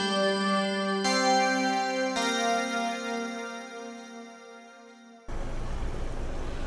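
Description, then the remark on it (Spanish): Sustained, swelling musical chords give way abruptly to a steady wash of city street traffic, a broad, fairly loud rumble of passing vehicles filling the last moments. “La figura de aquellas dos mujeres se perdió en el tráfico de la ciudad.”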